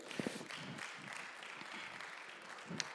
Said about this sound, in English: Oh, come on, clap your hand to the Lord.